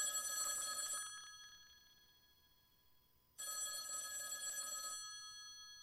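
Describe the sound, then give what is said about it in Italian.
An old-fashioned telephone bell rings twice in long, bright bursts, each about a second and a half, separated by a short pause; clear with no one talking. “La prima, quel telefono squillerà.”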